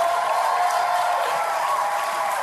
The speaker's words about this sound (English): This is a guy who's a Democrat running for the presidency with the last name Kennedy, yeah. and he gets more applause than Mitt Romney.